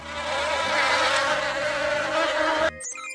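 A loud, steady swarm of bees buzzes continuously, a dense droning hum that cuts off abruptly near the end.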